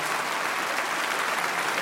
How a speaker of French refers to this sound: vous êtes très mignons, très mignons les Suisses, mais on n'a pas le temps, ok La prochaine fois, vous voulez applaudir, vous mettez vos mains dans vos poches et vous, vous éclatez les couilles, on reste cool.